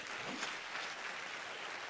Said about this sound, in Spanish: Si ese es el aplauso, dáselo mejor.